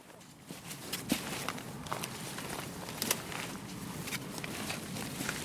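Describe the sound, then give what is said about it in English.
Footsteps tread onto piles of kelp, massive stalks and broken-off fronds washed up on a beach after a storm, in windy weather: a series of uneven crunching, crackly steps over about five seconds, moderately loud against a steady rushing background noise, with no talking. “So we're now standing on the kelp.”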